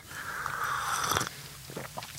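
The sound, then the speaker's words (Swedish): A wet slurp of hot black coffee drawn in with a hiss of air for about a second, followed by a few soft mouth clicks and a quiet swallow. No one speaks. “Nu är det jag som sörplar på svart kaffe.”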